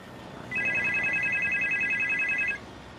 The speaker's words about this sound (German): bekommt einen Anruf.